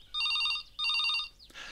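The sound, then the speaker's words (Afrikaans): A telephone rings twice in quick electronic trills, each burst bright and steady, followed by a brief click and a soft rustling hiss as the ringing stops. “Mevrou Willemse was besig om 'n toebroodjie te maak toe die telefoon lui.”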